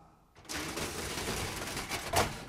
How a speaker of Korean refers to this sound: 아, 셔터 내렸어.